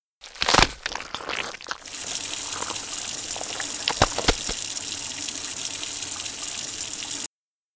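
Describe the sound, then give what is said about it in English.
Liquid pours steadily down a drain in a continuous gushing rush, preceded by a few brief clunks and splashes as the pour begins, then cutting off abruptly. “Then we can pour him down the drain.”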